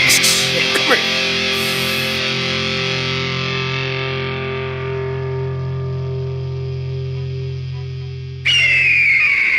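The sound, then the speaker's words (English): A heavily distorted guitar chord is strummed once and left to ring, its buzzing harmonics sustaining and slowly fading for about eight seconds before another harsh, noisy strum cuts in. “I don't know what chord this is, but I make my hand kinda like an eagle's talon.”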